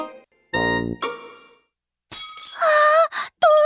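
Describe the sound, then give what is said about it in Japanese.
A mother's drinking glass, broken during play, breaks with a heavy thud and then a bright, ringing shatter of tinkling shards that rings out in bursts before stopping abruptly; no one speaks. “遊んでたらママのグラスを割っちゃったね猫くん早く破片を拾って隠そう”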